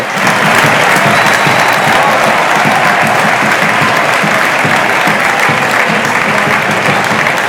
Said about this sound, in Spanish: Yo creo que con esta ovación se resume lo que ha sido la primera parte y el sentir del aficionado albinegro.